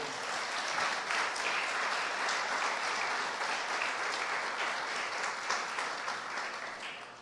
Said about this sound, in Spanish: Gloria al Señor. Dele una ofrenda de palmas al Rey.